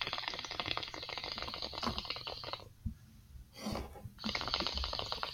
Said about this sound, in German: Man hört es nur blubbern.